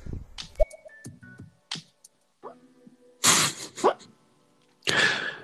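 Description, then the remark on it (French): A small dog lying at someone's feet whimpers while dreaming in its sleep, a few short, thin squeaks mixed with snuffling huffs and breathy bursts, coming in irregular spurts with quiet gaps and no talking. “effectivement, à la voix, vous entendez des petits couinements dans dans le fond. C'est mon petit chien qui est, couché à mes pieds et il rêve.”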